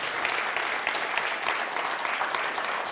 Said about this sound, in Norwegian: Og De bruker utrolig mye tid. Og Jeg syns alltid at sånne folk trenger en god applaus, og det skal de få lov til å få.